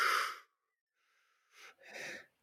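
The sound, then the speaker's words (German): A person imitates the sound of the sea with breathy, hissing whooshes: one strong rush, a brief pause, then two softer swells in quick succession, without talk. “Ja, und ich glaube, wir müssen nicht beide das Meer imitieren.”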